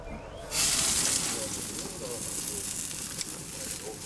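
A steady, broad hiss of food sizzling on a barbecue grill kicks in sharply after a brief quieter moment and continues fairly loud throughout, with faint crackles in the background.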